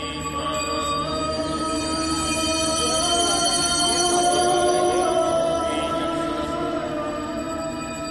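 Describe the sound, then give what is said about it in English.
A dense, continuous soundscape of layered drones and ringing, bell-like overtones, steady and fairly loud throughout, with no pauses: sounds, chants and prayers from some of India's most sacred places, recorded and mixed by Hildegard Westerkamp. “Hildegard Westerkamp recorded and mixed these sounds, chants, and prayers from some of India's most sacred places.”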